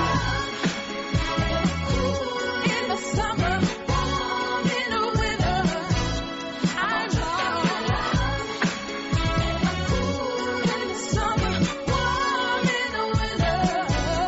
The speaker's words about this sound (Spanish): Dejamos la entrada, la sintonía con esa alerta de llamar a la Guardia Civil